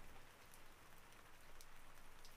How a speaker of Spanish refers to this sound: O quizás también los detalles en el fondo, en esta lluvia y en las gotas que caen.